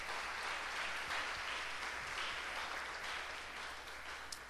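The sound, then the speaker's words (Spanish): An audience applauds steadily as an offering of applause to the King of Kings, a dense wash of many hands clapping at once that holds for several seconds before tapering slightly toward the end, with no voices heard. “Dale una ofrenda de palmas al Rey de Reyes y señores, señores.”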